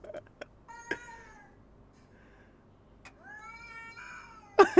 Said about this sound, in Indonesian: Captionnya gini, punya kucing jantan kecantol betina, tidak pulang tiga hari sampai kurus. Eh tiba-tiba pulang pakai marah-marah.